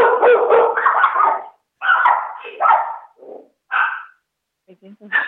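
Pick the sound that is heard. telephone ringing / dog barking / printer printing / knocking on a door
dog barking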